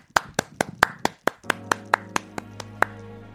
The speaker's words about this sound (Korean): 자, 그러면 저, 어, 배우이자, 연기파 배우이자 무속인이신 정호근 씨의 노래 한번 라이브로 한번 들어보겠습니다, 여러분. 박수 드립니다.